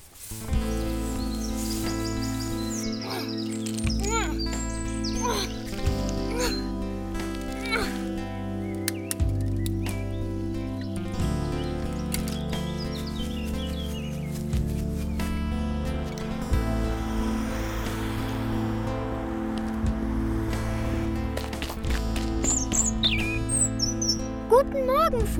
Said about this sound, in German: Vogel.